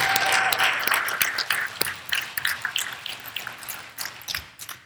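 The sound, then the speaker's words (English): A small crowd applauds the members of a service trip as they stand up, with dense, scattered clapping that starts full and steady, then thins into sparser individual claps toward the end. No one speaks. “Yeah, let's clap for these people.”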